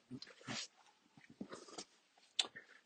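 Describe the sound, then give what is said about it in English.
A dog barks in a few short, sharp bursts spread across a few seconds, against faint background noise. “Uh, the dog there.”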